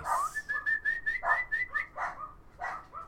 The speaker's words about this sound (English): dog, dog, dog, bark, bark, bark, bark, bark, bark, hey, bark, uh, bark, bark, bark, bark.